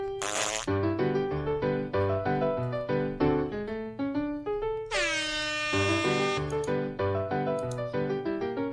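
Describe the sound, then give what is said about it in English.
The intro jingle of the Hockey Troll Hip Check segment: loud and brassy, with punchy horn-like chords in a steady bouncing rhythm, broken midway by a bright upward sweep before the riff resumes; no voices. “It, and uh, you know, I'll just let's just play the intro music and, and we'll get into it.”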